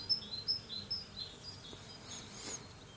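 Birds sing softly in a garden, with a few short, high chirps repeating early on over a quiet outdoor background and a faint low hum of bees buzzing. No one speaks.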